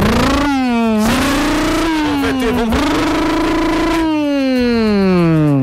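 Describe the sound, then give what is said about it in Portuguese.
The engine of a brand-new, zero-kilometre motorcycle revs loudly for several seconds, its droning pitch climbing, dipping and surging again without a break, with no voices over it. “Galera que tá acompanhando a gente, você ouviu isso aí? Uma moto impecável, zero quilômetro,”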